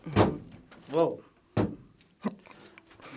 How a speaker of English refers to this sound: Banging my guitar all over the place here. Listen.